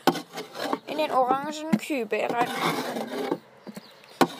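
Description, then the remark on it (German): Rough, rasping scrapes against a wooden dropping board as chicken droppings are scraped off early in the morning, repeated in short strokes, with someone talking over much of it and a sharp knock near the end. “Also zuerst muss ich jetzt vom Kotbrett muss ich jetzt die ganzen die ganze Kacke runternehmen.”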